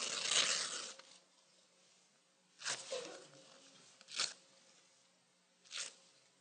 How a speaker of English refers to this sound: And then rip it up. Rip it up. Rip it into 100 pieces if you want. Just rip it up.